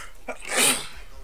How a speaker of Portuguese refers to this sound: Vou espirrar de novo